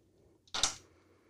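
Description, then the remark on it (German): A quick rattle of three dice tossed onto a table, a short burst of hard clicking clatter that settles within a moment, with quiet room tone around it. “Dann werde ich jetzt auch mal würfeln.”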